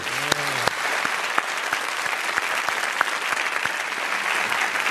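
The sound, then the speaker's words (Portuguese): An audience applauds steadily, a dense wash of many hands clapping at an even loudness throughout, with a few sharper individual claps standing out and a brief voice-like sound near the start. “bom, podem aplaudir.”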